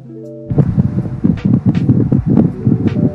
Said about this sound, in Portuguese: Pera é, aí, aí, deixa eu arrumar Agora... o ventilador. Deixa eu arrumar o ventilador.